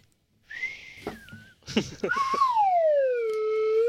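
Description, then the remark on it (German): Someone whistles: a steady high note that wavers, a few breathy clicks, then a long sustained tone sliding slowly downward in pitch. “Kann man nicht mal pfeifen.”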